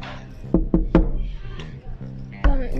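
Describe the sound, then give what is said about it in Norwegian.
Three quick, sharp knocks in a steady row, then a single louder knock a moment later, with a soft voice or tonal murmur continuing underneath. “Mm Banking. Hvem kan det være?”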